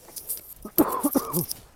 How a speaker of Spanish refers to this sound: Disculparme si hablo así, es que tengo la garganta muy seca y no tengo agua y literalmente me estoy muriendo, voy a toser.